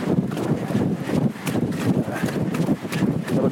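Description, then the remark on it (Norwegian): Steady running footsteps pound along in a quick, even rhythm, fairly loud, with wind rushing across the microphone and no talking. “får kjenne på den pulsen og pusten og så kommer litt skritt.”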